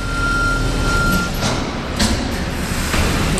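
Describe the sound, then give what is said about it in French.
A garbage collection truck arriving at a large hangar for composting green and food waste rumbles loudly, with a steady high reversing warning tone early on and several short bursts of air hiss. It is bringing and unloading collected food waste. No one speaks. “Et là, un camion qui arrive.”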